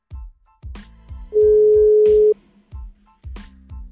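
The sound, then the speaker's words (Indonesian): A single steady ringback tone from an outgoing phone call to a friend, about a second long, sounds clearly over a punchy, rhythmic background beat; no one speaks. “Gua telepon dulu dah si bocah ini nih.”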